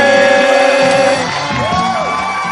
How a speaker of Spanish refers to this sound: Gracias, gracias, muchas gracias por esos aplausos viejos. Perdón, perdón, por esos aplausos viejos.